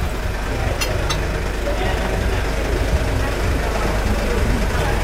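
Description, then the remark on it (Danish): A steady low engine rumble drones throughout from a car idling while parked right out front, with a couple of brief sharp clicks early on and faint voices mixed in. “Ej, hvor er det parkeret en bil lige ude foran Ja, apropos larm.”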